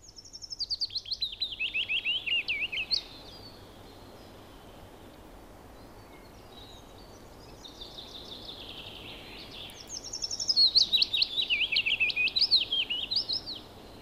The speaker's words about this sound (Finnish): Kuunnellaan vielä kertaalleen pajulintu ja sitten mennään eteenpäin.